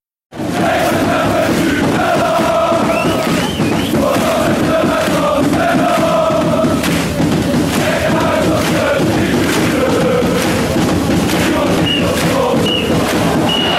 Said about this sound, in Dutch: Het laatste fluitsignaal.